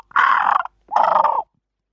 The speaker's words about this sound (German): kommandiert der Fuchs fast nur seine Krähen herum. Sie flattern wild übers Spielfeld.